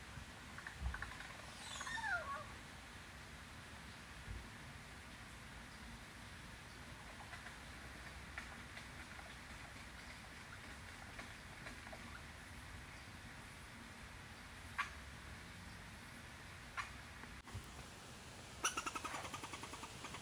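A bird calls once early on with a quick downward-sliding whistle, followed by a long stretch of soft outdoor ambience and a couple of faint, brief chirps near the end.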